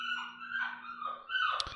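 Dogs bark and whine excitedly as a family member returns home: high-pitched yelping cries blending together almost continuously, with a sharper bark near the end. No one speaks.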